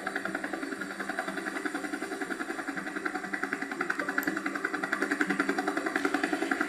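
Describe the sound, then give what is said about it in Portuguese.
Steady rotor engine drone with a rapid, even pulsing throb of helicopters hovering in the air, each stopped above a giant; a continuous mechanical hum that holds at a constant loudness throughout, with no voices. “Cada helicóptero escolheu um gigante e parou no ar em cima dele.”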